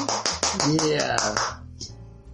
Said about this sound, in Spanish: ¡Bravo! ¡Fuerte el aplauso!